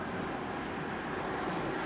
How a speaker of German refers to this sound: Und was wir hören, ist nicht die Motorengeräusche. Ne? Was wir hören, ist ja, wirklich nur der Abrieb von ja. Reifen auf nasser Straße. Hier könnte es so still sein gerade.